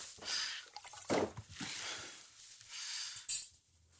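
Wet splashing and snorting as water is drawn into the nose and rinsed out three times during ritual washing before prayer, a few short noisy bursts with drips in between and no talking.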